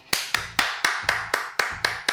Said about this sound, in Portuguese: Palmas.